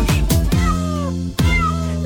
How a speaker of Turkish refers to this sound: Diye miyavlar çiftliğinde Ali Baba'nın